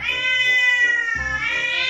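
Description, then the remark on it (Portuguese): A female cat named Jane Fonda lets out a long, drawn-out meow that holds steady and then rises again in a second plaintive cry, loud, with no voices around it. “Jane Fonda foi crescendo e toda vez que eu chamava Jane, eu via que aquela gata me olhava estranho”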